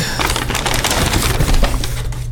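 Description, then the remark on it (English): A paper bag holding a drink crinkles and rustles for a couple of seconds, with a steady stream of crisp, papery crackles and small handling sounds, no voices. “Paper bag. I don't know what it is.”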